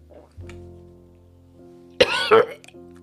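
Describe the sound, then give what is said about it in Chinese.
A person coughs: a sharp, harsh cough bursts out, followed by a second rougher cough a moment later, loud against an otherwise quiet background with a faint low hum. “嗯，我咳嗽。”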